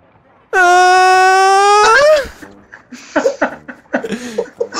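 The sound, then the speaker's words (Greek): A voice imitates a torn mushroom quickly deflating like a balloon with a loud, steady, buzzy honk held for about a second and a half, wavering and dropping in pitch at the end, followed by laughter and breathy chuckles. “Δημιουργείται ένα σκίσιμο πάνω στο μαντάρι και το μανιτάρι αρχίζει να ξεφουσκώνει γρήγορα σαν παλόνι, κάνοντας έναν ήχο που είναι κάπως έτσι.”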